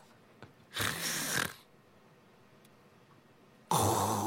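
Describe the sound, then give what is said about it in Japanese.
A voice imitates the apnea-like snoring of a five-year-old at nap time: a loud, rasping snore lasting under a second, then a long stretch of near silence, then another harsh snore bursting in at the end, like breathing that stalls between snores. “5歳児のあだ名が師匠なぜお昼寝の時間に一人だけ無呼吸っぽいいびきをかく これは師匠というよりはおじさんだな”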